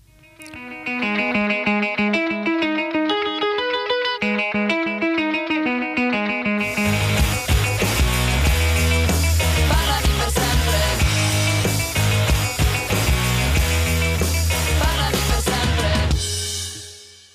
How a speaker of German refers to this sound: ich auf so einem Musikprogramm vorhin die führende Alternativband Italiens gefunden.